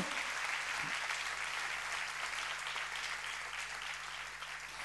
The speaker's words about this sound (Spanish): ¿Cuántos le dan la gloria al Rey de la Gloria? Vamos a darle fuerte ese aplauso al Señor.